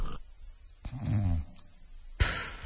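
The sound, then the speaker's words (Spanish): A voice imitates a snore: a short pause as if holding breath, then a low, rough, gurgling snort lasting about half a second, followed by a sharp puff of breath. “o quienes se ponchan, se detienen la respiración y hacen es asqueroso. Yo creo que ese es el peor ronquido”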